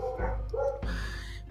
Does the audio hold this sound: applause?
no